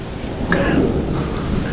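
Steady rainfall with a low thunder rumble swelling around the middle, a dense wash of noise that fills the short stretch evenly, with no voices.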